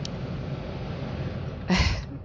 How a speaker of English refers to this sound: Air conditioning's very loud.